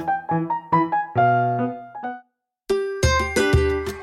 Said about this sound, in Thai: ขณะที่วิ่งเล่นกันอยู่ในสนามอย่างสนุกสนาน เสียงกริ่งหมดเวลาก็ดังขึ้น